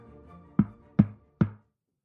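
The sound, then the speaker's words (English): Three firm knocks on a woman's wooden door, evenly spaced about half a second apart, fairly loud, with a faint low hum underneath. “When she is interrupted by a knock at her door.”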